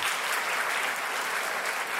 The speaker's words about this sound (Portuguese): Uma salva de palmas pro brasileiro.